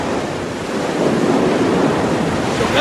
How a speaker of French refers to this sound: c'est la tempête du téléfilm Entre Terre et Mer de ballet. ça tombe bien parce que ça se passe entre Saint-Malo et Saint-Pierre et Miquelon.